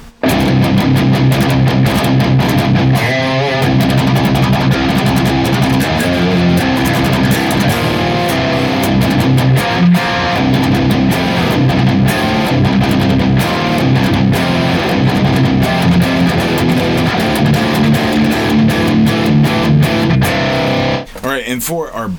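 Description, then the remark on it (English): A heavily distorted electric guitar plays loud, thick chugging riffs through the Neural DSP Archetype Nolly amp-simulator plugin with the POTD Green KT88 impulse response in stereo, with a dense, saturated tone that stays constant for about twenty seconds before cutting off. “So when we utilize the POTD green KT88 impulse response in stereo in our neural DSP archetype Nolly, it sounds like this.”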